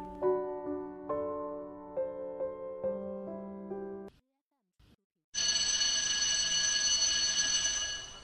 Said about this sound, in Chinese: 铃声响了，开始上课。